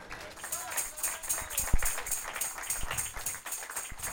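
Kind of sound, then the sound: crowd, scattered applause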